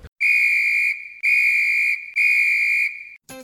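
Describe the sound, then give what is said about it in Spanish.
A referee's whistle blows three long, loud, shrill blasts in steady succession, each held for nearly a second with brief gaps between, heard alone. “despídete y cuando acabes pita.”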